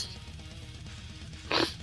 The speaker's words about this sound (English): So, anyway, you threw me off with the intro. That's what made me fucking cough.